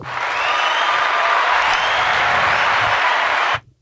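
Loud, sustained applause from a sizable crowd, a dense steady wash of clapping for several seconds that cuts off abruptly at the end. No one speaks over it.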